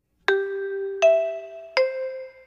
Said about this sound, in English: That would have been the coolest branding story, having the GEC chime stand for the General Electric Company